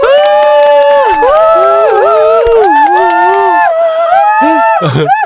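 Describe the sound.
A small audience erupts into loud, sustained cheering and whooping for an author at a book talk, with several high, rising voices overlapping continuously for about five seconds before cutting off abruptly.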